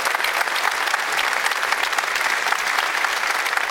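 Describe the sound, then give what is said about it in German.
Steady, dense applause from an audience, many hands clapping at once in a continuous wash of sound that holds level throughout, with no voices standing out. “Das hat erstmal einen Applaus verdient und wir vertiefen das natürlich, bohren auch noch ein wenig weiter.”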